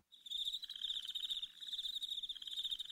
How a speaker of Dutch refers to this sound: Maar, de krekels zijn terug van de wasmachine-aflevering.